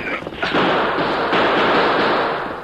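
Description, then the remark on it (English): A loud, dense volley of gunfire from surprised outlaws shooting at riders, shots piling together into a continuous crackling roar that starts abruptly and holds steady for a couple of seconds, with no voices. “And they were met by a hail of flying lead from the guns of the surprised outlaw.”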